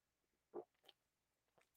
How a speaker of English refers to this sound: I'm mean, uh, taking a little sip, sip, of my water here